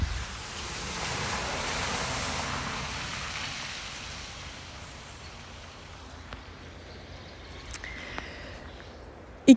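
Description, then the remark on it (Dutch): A car splashes through a muddy puddle on an unpaved forest road full of potholes, a broad watery rush swelling up and slowly fading, followed by a few faint knocks and a sharp clack at the very end. “En dus ja, geniet maar mee van de plas.”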